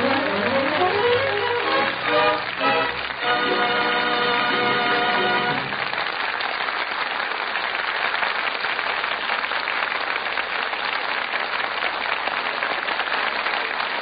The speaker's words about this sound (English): From that enthusiastic applause, it sounds as though our audience here in the Gulf Theater really enjoyed the show.